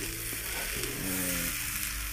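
Kumicchan-yaki sizzles steadily on a hot grill as it is cooked, a continuous hissing crackle with no pauses, alongside a low hum of tonal background sound; no one speaks.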